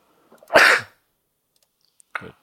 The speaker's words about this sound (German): Gesundheit.